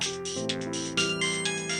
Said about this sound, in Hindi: घर के बाहर गाड़ी पार्क कर ही रहा था और अपने घर का दरवाज़ा खोल रहा था तभी उसका फ़ोन बज पड़ा देखा तो अनोन नंबर था लेकिन इंडिया से था